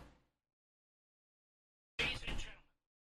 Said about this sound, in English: Whoa, holy cow, what the frick? I apologize for my phone suddenly deciding to uh, make noise.